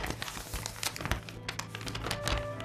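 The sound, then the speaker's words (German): Stiff paper crackles and crinkles as a sealed letter is broken open, a run of irregular dry rustles and sharp little snaps heard on their own with no talking. “Höre, Luise, ich erbreche ihn.”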